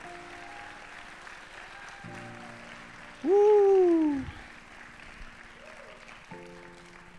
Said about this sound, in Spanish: Vamos, a darle tu mejor aplauso al Señor.